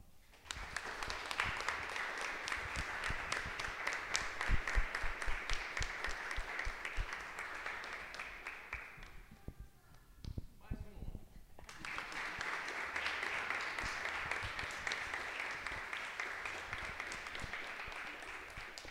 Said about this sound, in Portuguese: É eu quero uma salva de palmas.